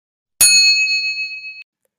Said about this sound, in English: Inside my pocket, my phone vibrated with a message from my best friend